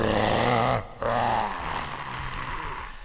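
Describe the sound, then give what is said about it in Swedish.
A man's loud, deep, inhuman guttural roar, like a voice imitating a monstrous bellow, breaks off briefly before a second rough, growling roar follows and trails away. The sound is strained. “Du ser hur han slänger ut handen emot dig och du känner hur det fladdrar till i byxan, men han får inte riktigt grepp om dig utan han vrålar omänskligt gutturalt läte”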